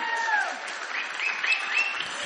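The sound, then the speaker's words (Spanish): Steady applause from a concert audience, a dense wash of many hands clapping at an even level throughout, with a faint high tonal trace running through it. “Y aprovechando este aplauso, les queremos presentar a Daniel Paz, alternando en el clarinete y el clarinete bajo.”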